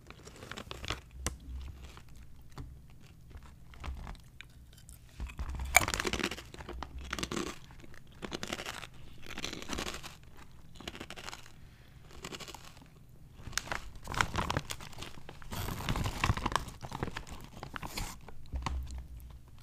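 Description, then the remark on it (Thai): Crunchy chewing of a snack from an already opened bag, with repeated crisp bites and crackling crunches in an irregular rhythm, loud, with no talking. “กรอบเกรียวเคี้ยวขนม”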